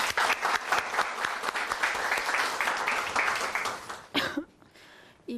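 An audience applauds steadily for about four seconds, a dense wash of many hands clapping, then it abruptly cuts off into near silence with a faint voice at the end.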